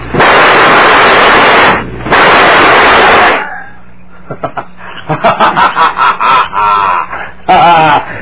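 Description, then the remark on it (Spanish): Two men fire pistols at each other at the same moment in a duel: two loud, harsh blasts ring out back to back, each with a long noisy tail, followed by a man's mocking laughter in short bursts. “Creíbas que le iba a dejar los tiros a tu pistola.”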